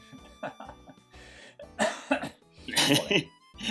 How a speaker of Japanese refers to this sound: ラジオであの咳払いというかなんていうのああんな絶対出しちゃいけないよね聞いてる人から